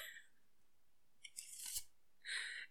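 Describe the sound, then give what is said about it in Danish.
A deck of playing cards being shuffled by someone learning to shuffle: a few soft clicks, then a rapid crackling riffle, and a second brief riffling burst after a short pause. No voices. “Det er fordi, at øh, jeg er i gang med at lære at blande kort.”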